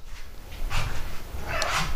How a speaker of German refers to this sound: Eins, zwei, drei, genau. Dreimal. Jetzt geht das große Mauzen los.